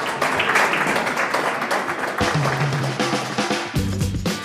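A burst of dense crowd applause fills the first couple of seconds, then gives way to a loud musical jingle with steady low tones. No one speaks.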